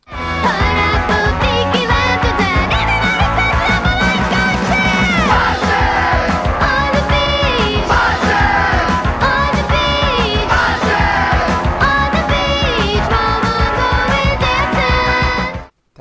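A loud, dense rock song by a full band with shouted, yelling vocals over driving guitars and drums, holding steady throughout before cutting off abruptly at the end.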